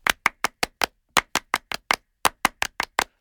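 Sharp, crisp hand claps in three quick bursts of five, evenly paced with short pauses between groups, a rhythmic counted applause performed without any voices.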